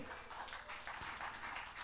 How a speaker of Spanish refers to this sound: Amén. Dele fuerte aplauso, Señor, por ello.